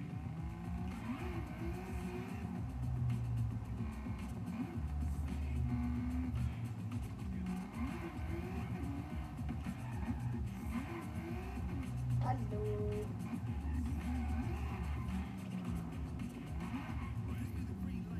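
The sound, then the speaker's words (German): A video game car engine drones and revs continuously, rising and falling in pitch as it speeds up and slows, loud throughout with no talking. “Fahr jetzt mal schneller da.”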